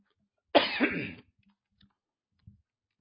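cough

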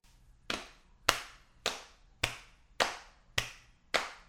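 hand clapping

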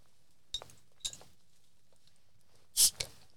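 beer can being opened

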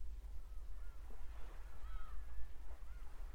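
seagulls calling

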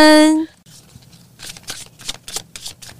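tarot cards being shuffled

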